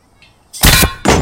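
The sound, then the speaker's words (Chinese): In a film scene, an air-powered bolt gun fed by a compressed-air tank fires twice in quick succession, two loud, sharp metallic blasts with a hissing, clanging burst each time as the lock is punched open. “就是我们听到它怎么去拧开这个气气罐的空压缩空气的这个罐子，然后跳剪到这个用用这个东西再一次把这个锁打开，然后用这个这个声音本身设计的很好”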